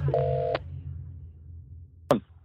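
A half-second telephone keypad dialing tone sounds clearly over a low background hum, followed after a pause by a sharp click like a line connecting, as Radio Nova's Yöradio places a call.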